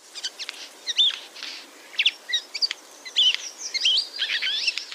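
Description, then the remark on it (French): A Eurasian jay gives a call and then its song, a busy, varied medley of chirps, clicks and short whistled notes, delivered in rapid irregular bursts at moderate volume with no voices present. “Les deux sons entendus proviennent du même oiseau, du jet des chaînes.”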